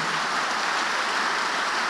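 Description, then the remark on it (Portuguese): A crowd claps for Jesus during a religious gathering, a dense, steady wash of many overlapping hand claps that holds at an even loudness throughout, with no pauses and no voices breaking through. “Enquanto você aplaude, já vai falando: Senhor, me enche do teu espírito.”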